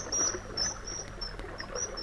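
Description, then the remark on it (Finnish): A common kingfisher gives a rapid series of thin, shrill, high-pitched whistles, fairly faint against a steady background hiss that sounds like trickling water. “Viikon luontoääni: Kuningaskalastaja”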